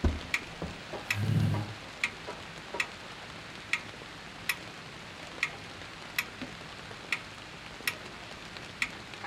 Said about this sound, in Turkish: dede saati ulan